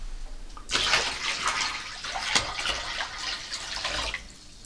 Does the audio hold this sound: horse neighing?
no